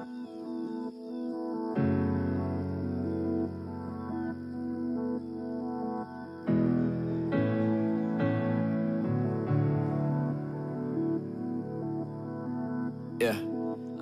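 A song plays steadily at moderate volume, with rich sustained chords that shift every second or two, and a brief bright click near the end.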